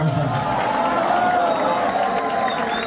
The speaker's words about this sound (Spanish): Bueno. Otro aplauso maestro ah.